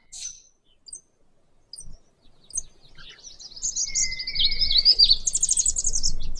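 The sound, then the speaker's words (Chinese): Birds chirp and sing, starting with a few sparse, high tweets and swelling into a dense, continuous stretch of bright, trilling song over a low background rumble. No one speaks. “那么就想利用晚上的这段时间，跟大家聊聊鸟儿的鸣叫。”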